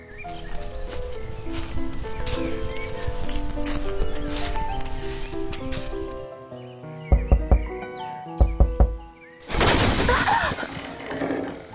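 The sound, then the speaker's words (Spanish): Music plays, then it thins out and two quick sets of three hollow knocks on the trunk of a tree in a forest, a trunk with holes in it, ring out loud before a harsh rushing burst takes over. “Voy a tocar a ver si sale alguna ardilla.”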